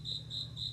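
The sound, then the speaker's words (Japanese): A bell cricket chirps in short, regular pulses, its bright ringing trill repeating steadily against a quiet background with a low steady hum beneath. “秋っぽい、鈴虫の声が聞こえますね。”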